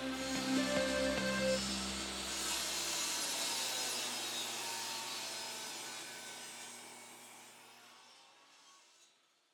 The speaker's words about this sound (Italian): Pochi minuti dopo, le ragazze sentono il rumore inconfondibile e terrificante di una sega elettrica.